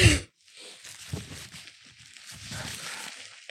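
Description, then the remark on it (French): Rustling and crinkling of a tissue being pulled and handled to blow a nose, a soft papery texture that continues steadily with a few louder crackly bursts. “J'ai besoin de me moucher.”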